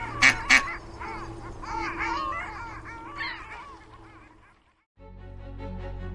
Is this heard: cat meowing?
no